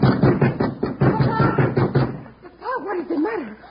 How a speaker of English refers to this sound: Why are you pounding on Senor Hickok's door like that?